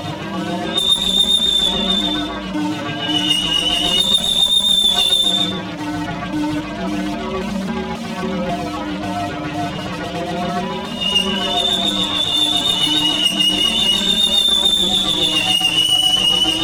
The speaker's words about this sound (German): Minus fünf Minuten. Jetzt ertönt der erste Sirenenton.